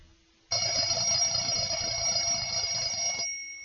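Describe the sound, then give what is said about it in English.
A loud, continuous electronic alarm clock ring blares steadily for about three seconds in the morning, then cuts off abruptly, with no talking over it. “The alarm goes off, but James is already up.”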